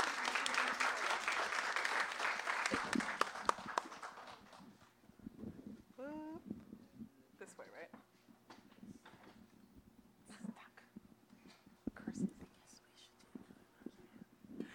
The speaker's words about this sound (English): Clap. Good job.